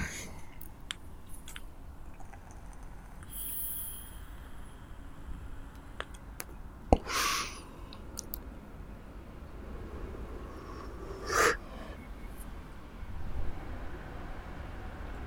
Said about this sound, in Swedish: så ska ni höra ett ångbloss. Och du lägger in en nikotinfri prilla här då. Så ska jag röka lite vattenånga.